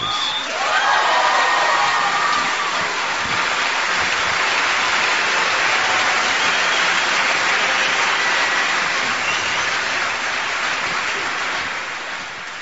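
A large audience applauds in a dense, steady roar of clapping that holds at full strength for several seconds, then eases off slightly toward the end, with no voices over it.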